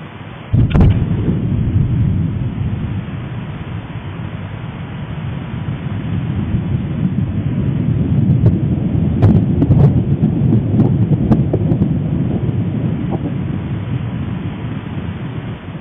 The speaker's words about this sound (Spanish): La actividad volcánica del Popocatépetl ha registrado múltiples explosiones en la madrugada de este martes 10 de mayo, y las cámaras de Tercer Milenio 360 Internacional lograron captar lo que fue la explosión más impresionante de esta madrugada.